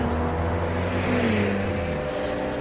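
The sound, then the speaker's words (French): Steady, loud engine drone of cars and trucks on a long straight road through dry desert, with a low rumbling hum that shifts slightly in pitch as a vehicle moves past, over a constant wash of road noise. “Et devant vous, la route. Rien que la route. Droite et interminable. Avec des camions et des voitures. Beaucoup voitures.”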